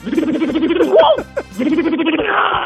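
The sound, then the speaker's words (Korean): A voice imitates an impact wrench removing a car wheel at a car repair shop, as a vocal impression on Park Myung-soo's Radio Show: a loud, rattling buzz, a brief squeaky break, then a second sustained whirring burst. “카센터에 가면은 예. 자동차 바퀴 뺄때”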